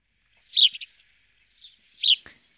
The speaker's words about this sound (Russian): Ну, давайте домовый воробей, если уж мы про них начали говорить, а, послушаем, вспомним, как он звучит.